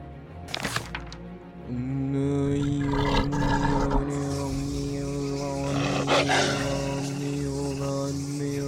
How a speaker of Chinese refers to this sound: 阿比持续发疯，怒吼着，并乱挥他的双手，似乎想要抓住阿华，让他停止驱魔仪式。